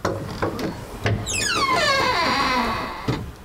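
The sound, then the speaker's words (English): A very creaky wooden wardrobe door in a museum is opened slowly, its long, wavering squeal gliding downward in pitch over a couple of seconds, with a few soft knocks and rustles around it. “There's a very creaky wardrobe in front of us. I'm going to open it up.”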